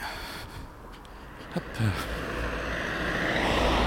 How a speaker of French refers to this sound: Je trouve que pour une journée aussi belle qu'aujourd'hui, il y a quand même vachement de circulation et vachement de monde dans les rues.